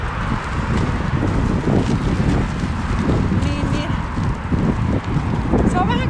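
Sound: wind blowing outdoors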